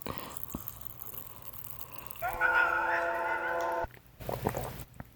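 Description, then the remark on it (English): Someone swallows carbonated sugar water: soft liquid sounds, then a loud sustained gulping, gurgling tone lasting over a second, followed by a few quieter mouth noises. “Oh, you know what you out here? Me swallowing this shit.”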